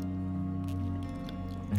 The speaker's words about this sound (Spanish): Porque cuando haces una pausa o tomas el agua, como la estoy tomando ahorita, y la abres y